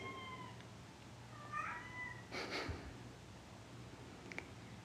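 A cat meows softly a couple of times, its thin calls separated by a brief rustling burst, over a low, steady background hum with no talking.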